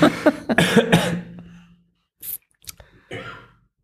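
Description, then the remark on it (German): A burst of several harsh, close-up coughs in quick succession, followed after a brief pause by a few softer, shorter coughs and throat sounds trailing off. “Entschuldigung, ich muss kurz husten.”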